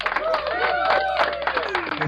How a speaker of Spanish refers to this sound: Aplausos.